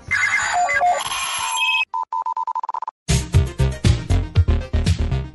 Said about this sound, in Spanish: Eh, eh, en el celular pongo ahí el despertador para una hora y después pongo 20 eh, minutos después.